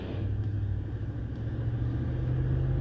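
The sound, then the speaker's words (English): The engine of a big dually flatbed truck rumbles, a deep steady drone whose pitch creeps slightly upward as it keeps running, with no voices over it. “You're drinking dually with a big flatbed truck, big techs.”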